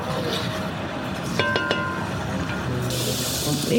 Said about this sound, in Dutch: is nu echt lekker hard aan het bakken. zie je een beetje opkrullen.